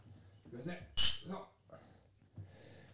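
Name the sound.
glasses clinking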